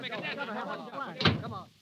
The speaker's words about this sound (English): What does this mean? How dare they pound on my door? I will call the police. Go away, you monkey!